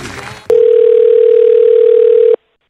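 A single long, steady electronic ring tone, like a phone line ringing on the other end, sounds loudly for about two seconds after a brief burst of muffled background noise, then cuts off.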